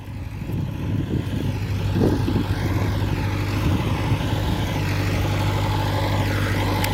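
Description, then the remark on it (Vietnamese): A heavy garbage truck engine idles steadily at the landfill cell of the Hau Giang waste-to-energy plant project in Vietnam, a deep continuous rumble that stays at an even, fairly loud level throughout, with faint background clatter and no talking. “Mỗi ngày, ô chung lấp rác thuộc dự án nhà máy điện rác Hậu Giang tiếp nhận khoảng 25 xe rác từ thành phố Vị Thanh, huyện Phụng Hiệp, huyện Châu Thành, huyện Châu Thành A và thành phố Ngã Bảy đưa về đây với khối lượng từ 60 đến 90 tấn,”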